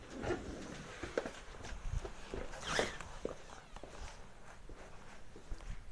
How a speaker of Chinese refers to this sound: 我操！我怎么听到突然门被别人打开的声音啊？